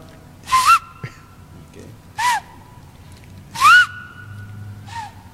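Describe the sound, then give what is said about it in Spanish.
Several short, sharp human whistle blasts, five to seven signals used to call a change during a training class, ring out at irregular intervals, each a bright rising tone with a breathy edge, loud over a quiet background. “Y ahí aquel que iba al frente se dormía, y cinco o siete chiflidos”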